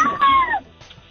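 One of the babies a phone-in caller is holding screams once in the background, a short, high, wailing cry that slides downward in pitch and fades after about half a second, with no talking.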